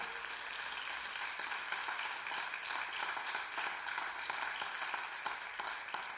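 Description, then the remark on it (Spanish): An audience applauds steadily, many hands clapping in a dense, even wash of sound that holds at a constant level for the whole stretch, with no voices on top. “Su aplauso me dice algo.”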